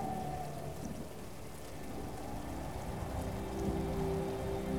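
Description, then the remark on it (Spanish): Steady rain hisses continuously while low thunder rumbles underneath, swelling slightly toward the end. No voices, just the storm's even wash of sound. “Cuando se acaban los truenos, cuando desaparecen los relámpagos, cuando la lluvia ya no lo moja todo.”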